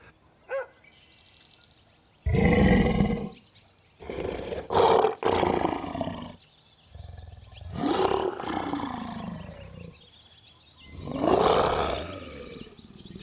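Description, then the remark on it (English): A recorded lion, played back to animals by researchers, snarls and growls in a series of loud, rasping bursts, each lasting a second or two, with short pauses between them and no other sounds around. “They used dogs barking, lions snarling and growling, and even gunshots.”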